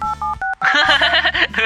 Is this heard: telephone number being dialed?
yes